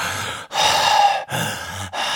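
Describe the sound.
A voice imitates a person's annoying heavy breathing, pushed deliberately outward: several loud, breathy huffs in a row, each separated by a brief pause, with no words spoken.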